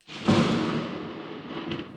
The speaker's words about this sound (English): we're just going to leave the thunder in the background